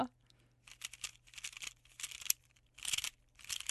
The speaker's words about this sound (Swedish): Ja men det där är en Rubiks kub. Mm. Och det var det mest eh, eh, tillfredsställande vi har hört.